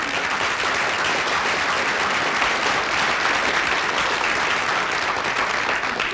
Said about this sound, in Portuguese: A verdade é que o pessoal que faz a rotulagem uhum. merece uma salva de palmas.